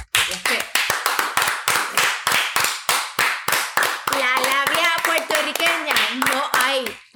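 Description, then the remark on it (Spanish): Steady, sharp live hand clapping for a Puerto Rican man, about three claps a second, loud and crisp; in the second half the clapping continues under a voice that talks or cheers over it. “Un aplauso para un hombre boricua.”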